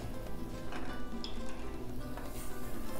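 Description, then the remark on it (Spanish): A soft, steady, very gentle sizzle of food frying in a pan, continuous, with faint crackles and a light scrape or two of stirring. “muy leve, una fritura muy suave.”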